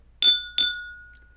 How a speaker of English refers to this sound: They could hear wine glasses being tapped against each other.